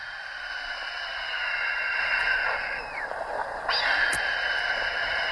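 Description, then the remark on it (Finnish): A dense chorus of barnacle goose calls played from a one-metre-tall tripod device used by a farmer in Parikkala, Finland; many birds yapping and chattering at once in a steady, overlapping din, with no one call standing apart. “musiikkia korville, kun valkoposkihanhi kiil”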